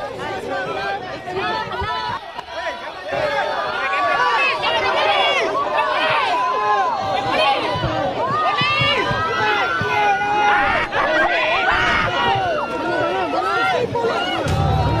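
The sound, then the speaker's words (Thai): A large crowd in Malaysia shouts "Dato Seri" over and over, calling Anwar Ibrahim by his full title on his release, many voices overlapping in loud, excited chanting and cheering that fills the whole stretch with dense, continuous clamor. “เสียงร้องตะโกน เรียกดาโตะเสรี ดาโตะเสรี ชื่อเต็มของอันวาอิบราฮิม แบบซ่อนความดีใจไว้ไม่อยู่”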